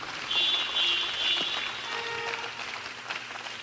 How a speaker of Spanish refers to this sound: Denle el aplauso ya que empezó, claro que sí.